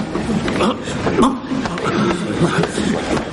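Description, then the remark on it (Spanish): A man coughs hard in a choking fit, a rapid string of harsh, rasping bursts and strained gasps running without pause, fairly loud over a faint background murmur. “Su padre tose fuerte en un ahogo y él lo mira preocupado.”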